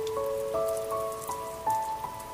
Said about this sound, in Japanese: 静かな雨の音だったこの雨の音を忘れたくないと思った